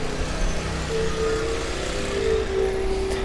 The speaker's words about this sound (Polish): Na ulicy w Warszawie dużo się zawsze dzieje. I przejeżdżają koło mnie skutery z pizzą.